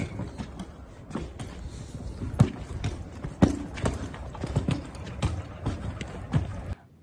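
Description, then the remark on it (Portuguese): Suitcase wheels rattle and grind continuously over rough pavement, with sharp clacks at uneven intervals as they hit joints, loud until the noise cuts off abruptly. “a minha preocupação, você vê que a mala, a rodinha faz muito barulho, né?”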